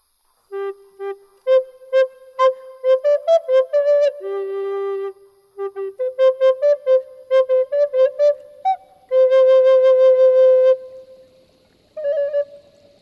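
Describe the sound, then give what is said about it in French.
A chef whistles a lively tune as he picks up a snail: quick runs of short, bouncing notes broken by a few longer held tones, clear, with no talking around it. “Il cueille Diego en sifflant.”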